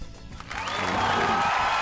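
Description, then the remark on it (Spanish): An applause sound effect swells in after a brief quiet moment, becoming a steady, dense wash of clapping with a faint whistle-like tone riding over it. “Oye, qué manera, pongo esos aplausos porque qué manera de aprender hoy con ustedes.”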